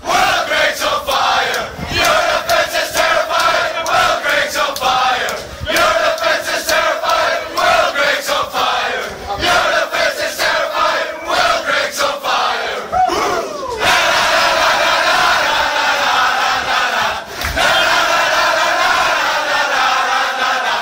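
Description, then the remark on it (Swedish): A large crowd of football fans chants in unison in a stadium in France in summer 2016, a loud, continuous, rhythmic sing-along echoing with repeated melodic phrases and no talking. “Jag minns hur, hur det lät då, sommaren 2016 i Frankrike.”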